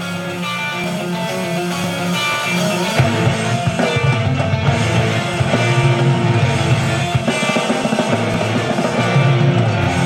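A bright, rapidly picked banjo riff plays loud, with heavy distorted guitars and drums filling in a few seconds later into a dense metal groove. No voices.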